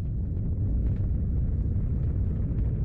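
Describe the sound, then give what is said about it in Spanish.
An American or Soviet rocket exploding in the late 1950s gives off a deep, heavy rumbling roar that stays loud and steady for about three seconds, with no sharp bang and no voices. “Estadounidenses y soviéticos contemplan desolados cómo sus ondas se derriten y los cohetes explotan.”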